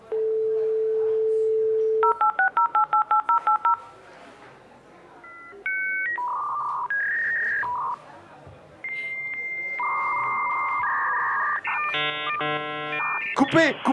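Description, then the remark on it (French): A 56K Wanadoo dial-up modem dials and connects: a steady dial tone, a quick run of touch-tone beeps, then shifting handshake whistles, chirps and a harsh hissing screech, loud. “mais c'était bien le témoignage d'un modem 56K de marque Wanadu.”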